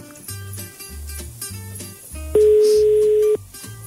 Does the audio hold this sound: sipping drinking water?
no